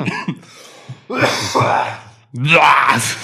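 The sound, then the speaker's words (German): Coughing blended with laughter: a short throaty sound, then two loud, rough bursts with voiced, laugh-like tones running through them, each lasting about a second. “Bisher konnte ich alle weiteren Huster unter äh, dreckigem Lachen verstecken.”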